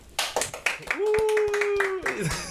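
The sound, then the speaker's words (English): A small studio audience claps in scattered, uneven bursts while someone holds a steady, sustained vocal whoop over the middle of the applause before it trails off. “Yo really tried to clap. That was the weakest. Let's do it. Let's let's redo it.”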